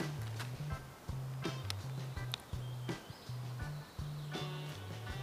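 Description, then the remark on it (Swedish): A steady, droning buzz of mosquitoes that shifts up and down in pitch runs throughout, with brief sharp chirps and clicks of birdsong scattered over it. “Fågelkvitter. Mm. Och myggsurr.”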